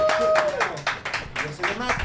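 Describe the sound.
Applause from a small group, sharp claps landing in a fairly steady rhythm for a couple of seconds, with a voice or two sounding faintly underneath.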